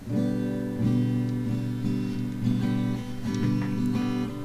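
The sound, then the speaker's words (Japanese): A guitar strummed gently with the thumb in a stroking motion so it barely resonates, soft sustained chords ringing in a slow, steady rhythm, with a few light strum changes and faint string noise, quiet with no voices. “このね、あの、親指でこの撫でるように弾くと、まあ、響かないんだ。”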